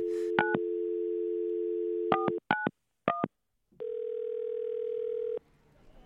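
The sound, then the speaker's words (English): A steady dial tone hums, broken by several quick touch-tone key beeps in short bursts, as a phone call is dialed from a studio to reporters at a Trump rally; then a longer continuous tone sounds before fading into faint background noise. “And we are going to make a phone call right now to”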